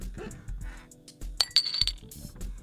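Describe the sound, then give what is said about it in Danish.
A soda bottle cap, pried off with a lighter, clinks onto a table, a short cluster of bright metallic rings over faint low background noise, with no talking. “Det var ikke en lydeffekt. Det var simpelthen bordet fra min åbne øh, sodavandsflaske.”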